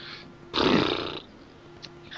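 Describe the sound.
A person imitates a horse with one loud, rough, breathy vocal burst lasting just over half a second, then it falls quiet apart from a faint hiss and a few small clicks.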